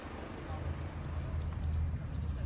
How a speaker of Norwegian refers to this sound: Det her det er lyden av gravemaskiner og mennesker som grav etter overlevende etter angrepet på ei boligblokk i Dnipro i januar.